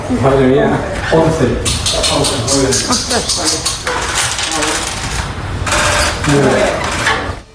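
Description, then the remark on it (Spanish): Two dice clatter and rattle in a couple of short bursts as election candidates throw them, on a judge's decision, to break a tied vote in Gestalgar, Valencia, while people talk over them throughout. “La jueza ha decidido que en lugar de tirar una moneda para resolver el empate, se lanzaran los dados.”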